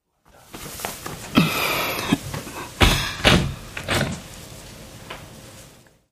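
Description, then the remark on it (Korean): A bedroom door in a home is opened around four in the morning: a latch clicks, then a few scraping, creaking movements and soft knocks as the door swings, with no one talking. “유수는 자리에서 일어나 방문을 열어보았다.”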